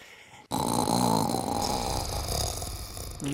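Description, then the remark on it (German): A person jokingly imitates a snore with one long, rasping, throaty drone that starts abruptly after a short quiet moment and continues loud for about three seconds. “Du willst wissen, ob sie auch schnarchen.”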